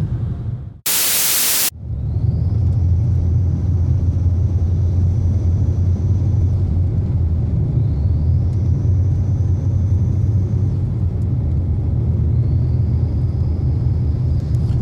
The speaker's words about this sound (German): Hört ihr dieses pfeifende Geräusch? Das macht der Turan, wenn ich aufs Pedal trete.